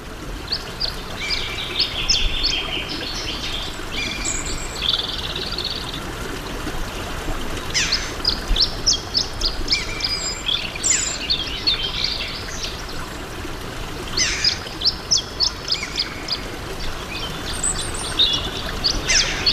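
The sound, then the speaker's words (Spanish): Several Canary Islands birds sing bright, trilling phrases in repeated bursts that echo off the rock walls of the Barranco de las Angustias gorge, over a steady rushing wash of the stream running under the rock at its bottom; no one speaks. “Y aquí escuchamos los pájaros canarios y sobre todo escuchamos el eco, la piedra, la reverberación en las paredes rocosas.”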